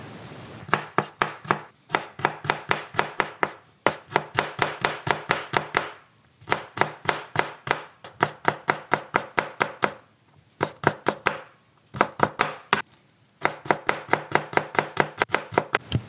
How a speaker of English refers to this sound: There is nothing my ears like more than the sound of a good meal the crackling of the pan. The bubbling of boiling water. chopping of vegetables.